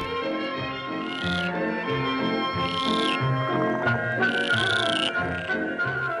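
A dense chorus of frogs croaks nonstop, many overlapping pulsing calls layered together, with higher trilling bursts rising every couple of seconds. The sound is steady and fairly loud, with no voices.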